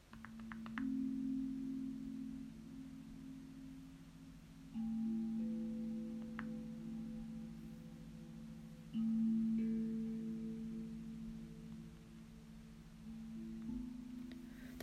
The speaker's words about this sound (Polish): Wczoraj zupełnie przypadkiem natknęłam się na YouTubie na muzykę Tongue Drum Music.